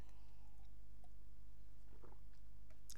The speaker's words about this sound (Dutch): En moet ik even een slokje water nemen.